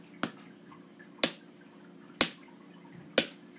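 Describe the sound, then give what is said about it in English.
Four sharp, solid smacks of a fist striking an open palm, evenly spaced about a second apart, each with a quick fading tail over a low steady hum, with no talking. “It's like and on my podcast that was my fist hitting my hand.”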